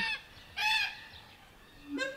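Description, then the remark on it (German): Crows calling with a few harsh, drawn-out caws: a brief one, a louder nasal call, then a rising call at the end, with no voices present. “Krähen. Rotschwänzige Kakadus. schwarze Kakadus. Kakadus. Krähen. Krähen.”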